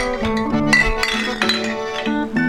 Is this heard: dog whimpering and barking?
no